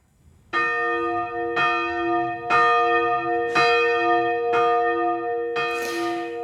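Church bells ring in Christmas in a steady, slow rhythm, about one strike per second, each stroke rich with sustained overtones that blend into a continuous resonant hum. No voices.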